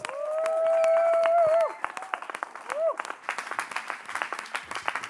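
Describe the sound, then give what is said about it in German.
An audience breaks into applause welcoming onto the stage the initiators of a project at the former Blaukreuzheim in Escheried: a loud, high whooping cheer rings out first, then dense, rapid clapping fills the rest, with scattered voices calling out over it. “kommen doch auf die Bühne, geben wir ihnen einen riesen Applaus.”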